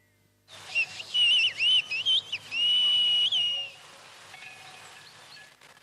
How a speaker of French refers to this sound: Cette langue, un cas unique en Europe, était déjà en voie de disparition dans les années 70. Il s'agissait en fait du patois béarnais adapté en sifflement, en particulier pratiqué par les bergers.